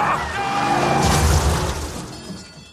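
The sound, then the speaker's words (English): A race car crash in an interactive race simulation after jumping a barrier: a loud, sustained roar of smashing and grinding with deep rumbling and bright metallic clatter, peaking in the middle before easing off toward the end. “have crashed”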